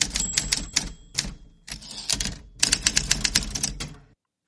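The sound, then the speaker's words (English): Rapid mechanical typewriter keystrokes clatter in bursts with brief pauses, fairly loud, ending abruptly; a faint steady tone hums underneath at the start. No one speaks. “we're ready for the typewriter, and I'll have the next story.”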